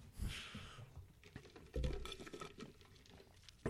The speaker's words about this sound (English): Um, yeah, I'd take a sip of my drink there.